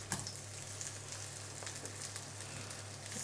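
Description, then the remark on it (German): Steady, crackling sizzle of burger patties frying in a pan, with small pops and a brief clatter near the start as one is carefully turned with a spatula. The sound is continuous, with no voices. “So, wir versuchen jetzt mal ganz vorsichtig, unsere Patties zu wenden.”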